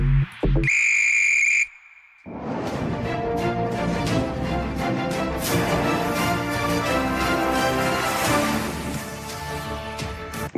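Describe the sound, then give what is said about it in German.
A single loud, shrill whistle blast lasting about a second, blown like a starting signal, then a brief pause before energetic music begins and carries on. “pfeif den Podcast an zu einer neuen Folge Kick and Quatsch”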